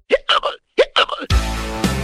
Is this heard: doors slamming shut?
no